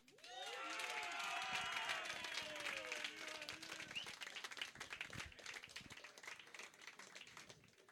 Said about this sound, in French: Hey, euh, j'aimerais ça qu'on donne une main d'applaudissement aux 70% en général qui étaient fucking dans la tête